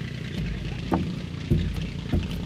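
A boat's engines idle with a steady low rumble at night in shallow water off a lake shore east of Rochester, the bow facing into the lake. Three dull knocks break the rumble, like a hull bumping.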